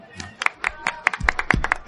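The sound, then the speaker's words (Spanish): A short burst of applause: quick, fairly steady hand claps from a small group, sharp and crisp, lasting just under two seconds with a faint murmur of voices underneath. “Bueno, eso se merece un aplauso, ¿no?”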